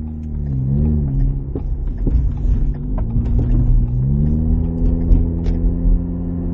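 A car engine revs loudly, its low droning pitch rising and falling in surges over a steady rumble, with faint clicks and road noise throughout.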